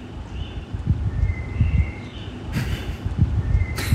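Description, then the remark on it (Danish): Faint birdsong phrases from a blackbird drift over a steady low rumble of railway noise, with a couple of brief rushing bursts. Recorded in the morning down by the railway tracks near Aarhus Central Station, Denmark. “Øhm, så var der simpelthen også en solsort i gang, men altså det, det var den lige nede ved togbanen.”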